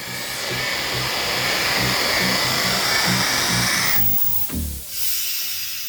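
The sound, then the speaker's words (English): A laboratory decontamination system, just switched on, blasts air in a loud, steady roar, with rhythmic low thumps pulsing underneath. Near the end the rush briefly thins and shifts before continuing. “Once we were clear, Dad hit the decontamination switch.”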